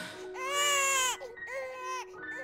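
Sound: newborn baby crying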